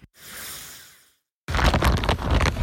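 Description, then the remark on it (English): A torrential downpour of rain roars after a softer hiss and a brief pause, a dense, loud, relentless wash of pattering and crackling drops with no voices. “I'm not sure if this can be heard or not, but a torrential downpour has started.”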